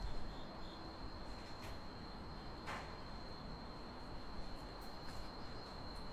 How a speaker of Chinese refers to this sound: 哎，能收到蝉鸣呢？